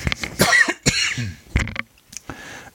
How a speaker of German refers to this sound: Ich muss mal kurz husten.